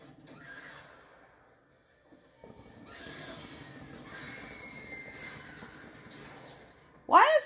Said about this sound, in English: a woman screaming.